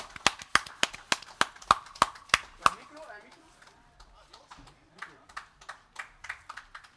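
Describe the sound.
Loud, steady rhythmic hand claps, about three per second, give way to quieter, scattered applause, with voices murmuring underneath.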